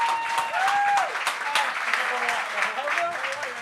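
A crowd applauds a comedian being introduced, with dense, continuous clapping, while whoops and rising, sustained cheers ride over the top throughout.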